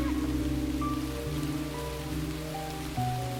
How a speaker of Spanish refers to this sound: Como se escucha, eh, se larga a llover esta noche.